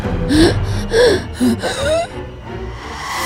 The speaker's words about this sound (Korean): 그리고 저는 숨을 몰아쉬면서 벌떡 일어났습니다.